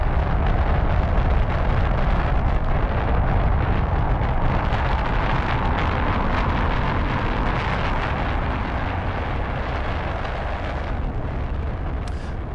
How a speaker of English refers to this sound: And today you find us having travelled back in time to July 1969. We're at the Kennedy Space Center in Florida. In fact, we're standing beside the Saturn V rocket as it launches to the moon for the Apollo 11 mission.